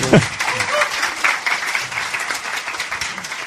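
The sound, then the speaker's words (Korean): An audience applauds steadily to welcome a guest, many hands clapping in a dense, continuous patter that holds fairly even loudness throughout, with a brief low vocal sound at the very start. “자, 박수로 아, 맞이해주세요.”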